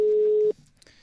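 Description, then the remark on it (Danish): A telephone ringing tone on an outgoing call to Albert Dyrlund, made from a radio programme on Radio Loud: one steady, clear electronic beep lasting about half a second, fairly loud, then a quiet, faintly hissing line. “Så lad os prøve at ringe til Albert Dyrlund.”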